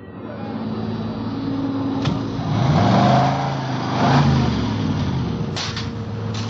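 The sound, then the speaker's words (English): Car engines run steadily at a service station's 10-minute car wash, with a rising and falling rev in the middle and a couple of sharp mechanical clicks. No one speaks. “Ben and I took up our posts as supervisors of the station's 10 minute car wash.”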